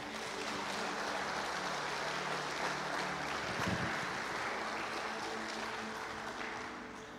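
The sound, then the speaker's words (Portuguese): An audience applauds for Jesus during a church sermon in a dense, steady wash of clapping that holds at an even loudness for about seven seconds, thinning slightly at the end. No one speaks over it. “Dê um forte aplauso aí, Jesus.”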